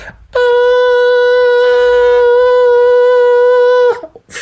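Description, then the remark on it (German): A person imitates the scream of a wounded hare: a single loud, shrill, unbroken wail held at a steady pitch for about three and a half seconds, with no other sounds around it. “Denn der Hase hat geschrien und ich mache das mal vor, wie ein verwundeter Hase schreit, das hört sich an wie ein verletztes Kind und der Schrei ist schier endlos.”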